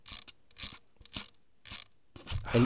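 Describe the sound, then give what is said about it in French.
A slightly detented rotary wheel with a little inertia clicks as it turns, giving about six short clicks at uneven intervals. A rougher, louder burst closes the sequence, and no one speaks. “elle, tourne, euh, elle a une petite inertie, tu vois. Mais elle est légèrement, très légèrement crantée. Écoute. Tu entends Clic, clic, clic, clic.”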